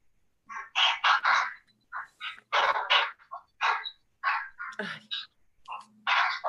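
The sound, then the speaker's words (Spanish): A dog barks over and over in the background of a call, picked up by a participant's microphone: quick, uneven bursts of sharp yaps clustered together with short pauses between them, fairly loud and with no one talking over them. “se oye un perro por ahí, ¿no?”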